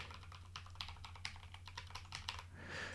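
Rapid, soft keystrokes tapping on a foam-filled mechanical keyboard with smooth lubricated switches, held and turned in the hands, a steady clatter over a low hum, with no one talking.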